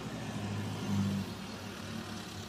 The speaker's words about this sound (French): Non, c'est un buggy.